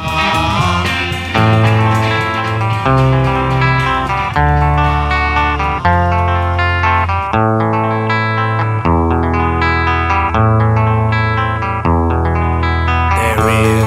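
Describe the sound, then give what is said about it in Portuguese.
An electric guitar picks out chords one note at a time in a steady, flowing arpeggio, with a warm, slightly effected tone and low bass notes shifting beneath, loud and continuous with no voices. “experimentou tocar nota por nota em sequência, usando a técnica chamada de arpejo.”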